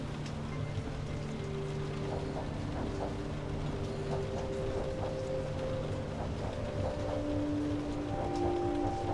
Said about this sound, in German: Die Luft im Abteil ist plötzlich erfüllt von einem angenehmen Duft nach frischem Regen und feuchter Erde. Du spürst, wie deine Gedanken immer weiter zur Ruhe kommen, während der Zug durch den sanften Regen gleitet